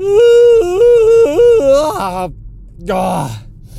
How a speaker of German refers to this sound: Heute alles supi, alles gut, auch wenn ich ein bisschen sehr müde bin tatsächlich. Und es kommt schon wieder ein Gähner.